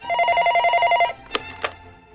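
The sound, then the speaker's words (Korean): A telephone rings with a steady, warbling electronic trill for about a second, then stops, followed by two short clicks or knocks. “예, 저는 또 전화가 와서 이만 끊을게요.”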